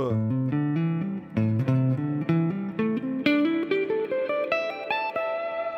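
A melodic instrument phrase in fast, evenly spaced sixteenth notes, the line stepping up and down before climbing steadily higher in pitch, played at a steady, fairly loud level with no talking.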